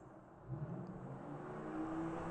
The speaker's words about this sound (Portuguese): Um carro. Desculpem. Desculpem, mas isto é só a vida a acontecer lá fora e é também para vocês perceberem o que é que é morar em Nova Iorque. Isto é sempre barulho.